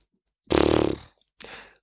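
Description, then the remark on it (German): A person imitates a horse with a loud, rough vocal whinny-like burst lasting about half a second, followed by a shorter, softer breathy snort. “Ach nee, es war ein ganz, ganz schlechtes Pferd, das muss ich nochmal üben.”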